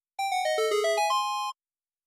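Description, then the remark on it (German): A short, bright synthesized jingle of quick ascending-and-descending tones, a rising chiptune-style fanfare announcing a discovered secret in a video game, played clearly and alone for about a second and a half. “Zelda. Ähm, genau. Ich glaube, wenn man ein Geheimnis, find Ge genau. Geheimnis genau. findet.”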